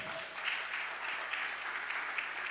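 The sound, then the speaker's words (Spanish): An audience at a church service applauding loudly at the preacher's call, a steady dense wash of clapping hands that holds at an even level throughout, with no voices rising above it. “Le un aplauso fuerte.”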